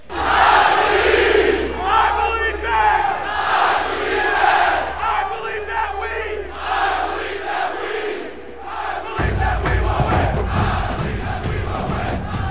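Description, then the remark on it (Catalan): A large crowd of football fans chants loudly in unison "I believe that we will win", a rhythmic repeated chant that carries steadily for the whole stretch, with the sound of the mass of voices growing denser in the final seconds. “I believe that we will win. És un autèntic crit de guerra.”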